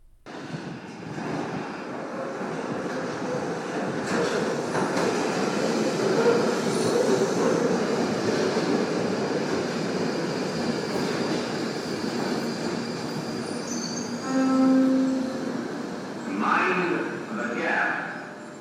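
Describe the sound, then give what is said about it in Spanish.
An underground train rumbles steadily through Embankment metro station, a broad continuous roar with faint metallic squeals and a brief tonal chime near the end, fairly loud. “Y ahora la voz de … está en la estación de Embankment.”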